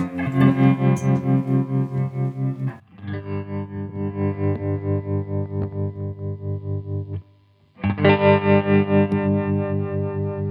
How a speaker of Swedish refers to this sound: det är tremolo fast den är, den, när diskanten går upp så går basen ner så den får lite facer-känsla.